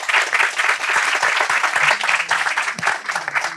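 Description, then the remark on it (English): A crowd applauds its speakers steadily, a dense, even wash of many hands clapping at once that holds at a lively level throughout without fading. “So, thank you to everyone, and let's have a round of applause for our speakers.”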